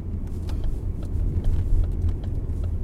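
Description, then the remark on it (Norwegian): Steady low engine drone and road rumble from inside a car driving inland toward Raufoss on the west side of Mjøsa, past rising snowplow banks, continuous and fairly loud, with faint ticking and clicks scattered over the hum and no one speaking. “På utsida av bilen kommer snøbrøytekanten høyere og høyere opp i bilruta til lengre inn i innlandet jeg kjører.”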